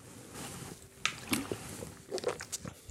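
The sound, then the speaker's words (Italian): Soft sips as a speaker addressing a church pauses to drink a drop of water: a few small wet slurps and mouth clicks, then a quiet swallow, set against a faint background hum with no talking. “scusatemi, bevo”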